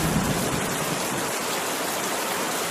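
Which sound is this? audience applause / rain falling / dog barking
rain falling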